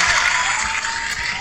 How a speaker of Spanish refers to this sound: Aplausos, por favor. Eso no merece aplauso.